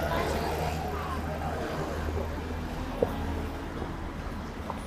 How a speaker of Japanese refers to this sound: あ、今ね、ちょっと、うるさいところに入っちゃったんで、車が少し音が入るかと思います。